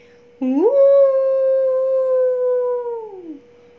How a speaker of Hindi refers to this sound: और जहाँ एक गीदर चिल्लाता है ना सारे गीदर चिल्लाने लगते हैं सारे सियार चिल्लाने लगते हैं कैसी आवाज़ में तो ये सियार ये गिदड़ों का एक मेन कैरेक्टरिस्टिक होती है मेन पहचान होती है